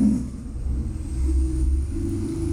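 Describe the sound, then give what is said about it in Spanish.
A heavy trailer truck rumbles past outside with a deep, steady engine drone that swells a little midway, then holds at a moderate level. No one speaks. “O sea, ¿qué pasa es tráiler?”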